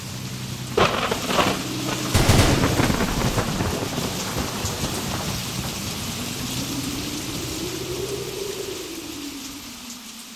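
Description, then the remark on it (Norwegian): Heavy rain pours down steadily in a cyclone, with loud cracks and a deep rumble of thunder early on, followed by a rising and falling low moan of wind through a stormy downpour. “Da kan vi krysse av syklonens øye på bucketlista også.”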